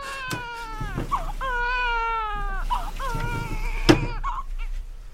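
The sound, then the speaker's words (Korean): A newborn princess, just born to the queen in King Seonjo's court, cries in several long, quavering wails, each breaking off and starting again, fairly loud, with no talking and a brief sharp knock near the end. “어, 아기 울음소리가 나지 않았느냐?”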